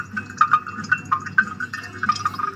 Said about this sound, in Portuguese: Temos o barulho de máquina de secar de um carro, de um pingar de gotas, tipo pingar gotas numa torneira.